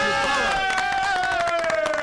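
A burst of applause with many hands clapping, mixed with crowd cheering and a sustained tone that slowly slides downward, loud and continuous throughout, welcoming a guest.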